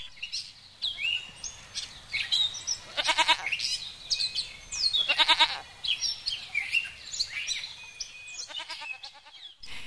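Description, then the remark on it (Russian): Goats bleat a few times in short, wavering calls while birds chirp and twitter steadily in the background of an outdoor setting. “Ему нравилось играть с маленькими козочками, смотреть, как они пасутся, ухаживать за их жильем.”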